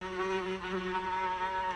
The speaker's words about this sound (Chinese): 公明仪再度扰动琴弦，弹出一段段奇怪的声音，有的像嗡嗡嗡的蚊子、苍蝇声，